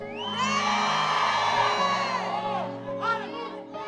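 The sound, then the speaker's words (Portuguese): A large crowd shouts and cheers together in a sustained roar of many voices, loud, surging for a few seconds before a few scattered shouts trail off at the end. “Anota isso e grite se isso é para você.”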